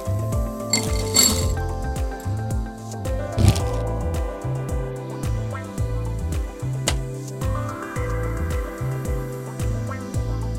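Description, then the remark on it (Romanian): Small pieces of nugget ice clink and rattle into a glass as they are added to a drink, in two brief bursts near the start, heard over steady, rhythmic background music with no talking. “De data aceasta vom folosi niște gheață nugget.”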